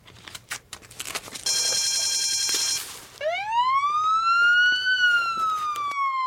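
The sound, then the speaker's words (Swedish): A burglar alarm goes off during a break-in: a burst of harsh, ringing alarm bells and clatter, then a police siren wails with a steady rising tone as police arrive, the sound loud and continuous with no voices. “Larmet börjar tjuta och polisen är snabbt på plats.”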